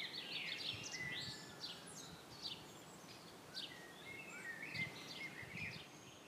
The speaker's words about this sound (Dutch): Ik stond bij het opnemen achter in de tuin waar je over de weilanden uitkijkt. Daar staan ook de fruitbomen en er is een plek om vuurtjes te stoken. en begin mei klonk het er zo. Je hoort aan het geruis dat er meer bladeren aan de bomen zitten.